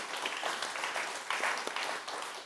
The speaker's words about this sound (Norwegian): Klapp. Gi gjerne et applaus.